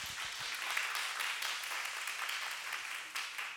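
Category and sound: crowd, audience applause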